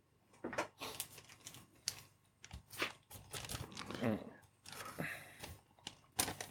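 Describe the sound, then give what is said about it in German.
Irregular crinkling and rustling of packaging as a vinyl record is unpacked, with sharp crackly bursts scattered throughout and quieter handling noises between them. “Ah, dieses, dieses Geräusch, ja, ja. Ganz ja, fantastisch. Kleine sexy Knistern.”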